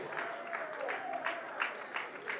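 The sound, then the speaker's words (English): An audience claps steadily for a couple of seconds, a dense, fairly loud patter of many hands with slight swells, and faint voices murmuring underneath. “I know we can't clap too much, especially if you're married. Like, what you clapping for?”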